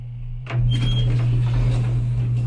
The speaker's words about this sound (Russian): Двери лифта открываются.